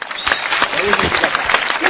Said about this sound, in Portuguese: Aplausos aí